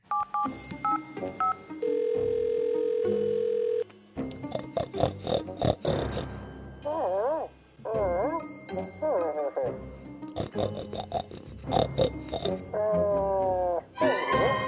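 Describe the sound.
A telephone call rings through: a few quick dialing beeps, then a steady two-second electronic ring tone, followed by lively, animated voices talking over the line.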